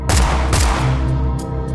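sound effect, gunshots

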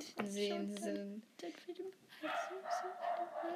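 animal, dog barking

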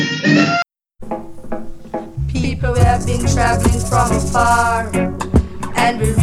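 song

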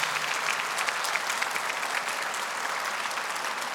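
crowd, audience applauding loudly

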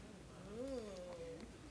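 bird, bird

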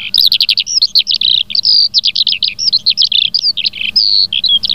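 bird, skylark song

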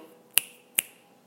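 human body sound, finger snap

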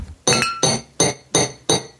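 household object, glasses clinking

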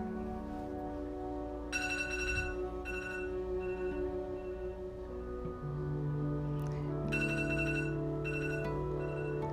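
household object, alarm clock ringing

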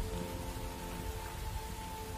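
nature, rain falling

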